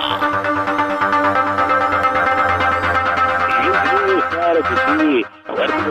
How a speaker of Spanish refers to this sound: Pónganme ahí una música de table dance, muchachos